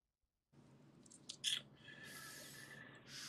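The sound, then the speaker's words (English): Crunchy chewing, with a sharp bite around the middle followed by steady munching and soft mouth noises, no talking. “Got the munchies there.”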